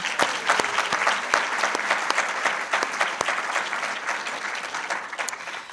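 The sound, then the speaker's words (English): Steady audience applause at an evening literary reading event, a dense wash of many hands clapping with sharp individual claps popping out, holding fairly even in loudness before tapering slightly toward the end. “A round of applause for everybody.”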